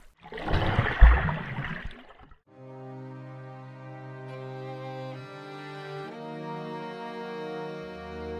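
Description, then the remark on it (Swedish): A loud, rushing splash of someone diving down into pitch-black water lasts about two seconds, then gives way to a low, sustained musical drone with shifting held tones. “Och jag dyker ner i det kolsvarta vattnet.”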